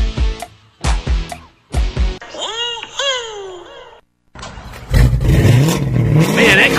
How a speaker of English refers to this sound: car sounds good. Oh, you know, it's just that Carnage exhaust I got at Troy's Muffler